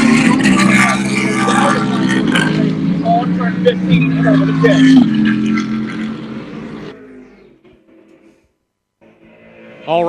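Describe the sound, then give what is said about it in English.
Loud, droning engines of the race-leading cars roar past for several seconds as they come out of turn 15, about two car lengths apart, then fade into near silence before another engine whines in, rising quickly in pitch. “Alrighty, I guess it's over to me right now as our race leaders are coming towards me out of turn number 15.”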